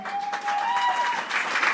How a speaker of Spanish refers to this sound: Gracias, porque ustedes han pasado aquí por todas y se siguen manteniendo y ellos se merecen el aplauso más grande de todos, porque sin ellos ninguno de ustedes estaría aquí.